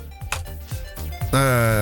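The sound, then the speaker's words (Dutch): A doorbell rings, signalling that the show's third host has arrived at the door: a few quick tonal taps give way to a loud, sustained bright chime with rich harmonics, ringing steadily until the end. “dat, dat, is geen beller voor de mensen thuis. Dat is de deurpusser.”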